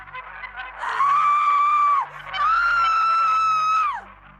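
A woman in labour screams piercingly, two long sustained high-pitched cries in a row, loud, over a faint low background hum.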